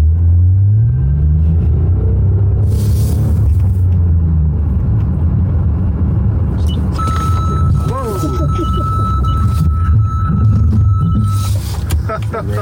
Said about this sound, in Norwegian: Og så kjørte vi med en bil med luminar teknologien, og det skal dere få høre nå.